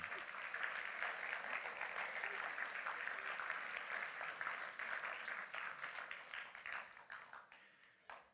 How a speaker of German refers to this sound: Applaus ja.